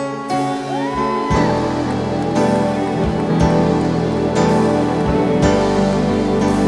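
A large crowd claps steadily and loudly for several seconds, giving a big round of applause to the King, a dense wash of applause with music playing underneath.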